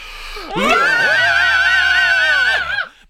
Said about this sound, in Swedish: Ja, som vanligt, för att få ur det allra sista krämen, det frigörande inre vrålet inom oss, så mm. tar vi ett riktigt glatt Happy Boy Power Metal-skrik.